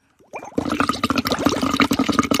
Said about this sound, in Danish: Så det er, der er vand på mikrofon. Der er vand ud over mit bryst. Der er vand ud over mit skød.